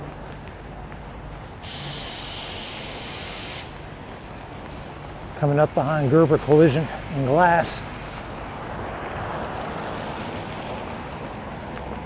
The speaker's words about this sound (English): Can you hear the raindrops? Can you hear the splash of water as that car drives through? I was taking shelter there just briefly under the uh, airline drive ramp that turns into Tulane Avenue.